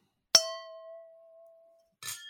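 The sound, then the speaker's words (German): A single clink of glasses meeting in a toast; the glass is fairly full, so the tone is rather dull, hanging on and fading over about a second and a half, followed by a brief rustling noise at the end. “Du hörst, das Glas ist ziemlich voll, darum ist der Klang ziemlich dumpf.”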